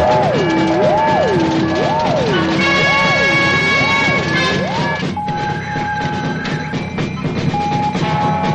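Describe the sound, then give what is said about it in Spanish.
Alarms wail loudly, a rising and falling siren cycling about five times, then steady high beeping tones take over against a dense, rumbling mechanical din, as a huge hatch opens on the surface of an islet and minions head to their posts to prepare a rocket launch. “Las alarmas comienzan a sonar y los esbirros se dirigen a sus puestos preparándose para el lanzamiento.”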